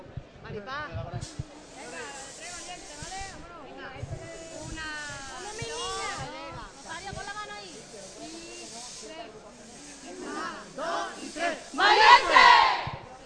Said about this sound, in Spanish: Valiente, ahí está ese grito de guerra.